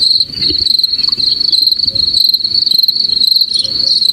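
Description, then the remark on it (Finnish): A grasshopper chirps in a steady, high-pitched trill that runs without a break, with faint rhythmic pulses layered on top and a soft low rumble underneath. No one speaks. “Ja sittenhän meillä on täällä tämä tota, heinäsirkkä ääni aina takaptina.”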